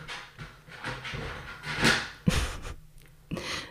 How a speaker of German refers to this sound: Das war mein Hund.